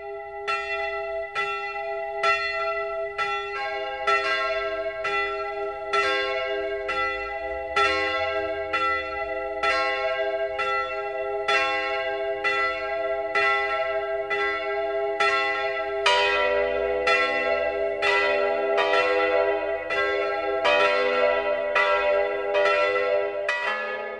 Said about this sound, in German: Es ist 12 Uhr. Das Mittagsläuten kommt heute aus Kochel am See in Oberbayern. Michael Mannhardt hat die Pfarrkirche St. Michael besucht.